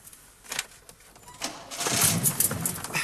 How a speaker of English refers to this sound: Now try again. Start the engine.